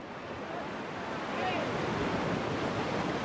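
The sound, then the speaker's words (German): Steady roar of sea surf washing onto a beach at La Malera as the tide comes in, where men launch wooden boats, a continuous rushing wash that swells slightly midway, with faint voices mixed into the noise. “Seit Sonnenaufgang sind die Männer am Strand. Jetzt mit der Flut bringen sie ihre hölzernen Boote zu Wasser.”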